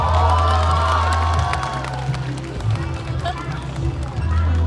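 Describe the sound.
Wedding guests applaud and cheer for the bride in a steady, loud wash of clapping and voices that runs the full few seconds, with a low droning tone underneath.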